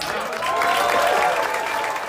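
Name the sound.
applause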